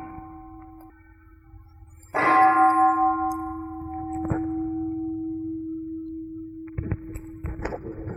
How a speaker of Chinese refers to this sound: 比如这个这个声音，这个铃钟的声音会跑过来，然后这个木头拿出来的时候。是一个声音